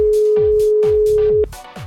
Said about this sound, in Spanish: Eh, dale, dale a la llamada. Tenemos una sorpresita. A ver si nos coge. ¿Está llamando? ¿Está llamando? ¿Está llamando? ¿Está llamando?